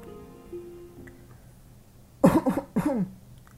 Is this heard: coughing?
yes